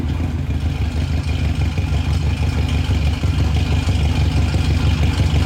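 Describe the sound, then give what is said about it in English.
A carbureted straight-four (four-cylinder) pickup truck engine runs steadily, a low, throbbing rumble with a faint mechanical clatter, holding an even idle-like pace throughout with no voices. “That's a straight four.”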